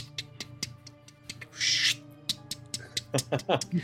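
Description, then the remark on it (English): A voice mimics a lawn sprinkler with a run of sharp ticking clicks, a brief hissing spray, then faster clustered ticks. It is moderately loud, with no other talking. “Almost like a sprinkler. Um, the ticking sound is very soothing for those of you inside the tent.”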